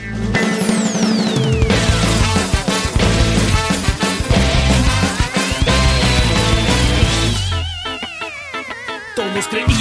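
A rock song intro plays loud and dense from start to finish, full band with sliding, sweeping synth tones, thinning briefly near the end into a wavering high tone. No one speaks.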